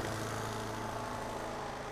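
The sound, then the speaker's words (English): A lawnmower engine drones steadily, a constant low, buzzing hum with no change in pace. It is fairly faint and there is no talking. “sorry, lawnmower, unannoyed me,”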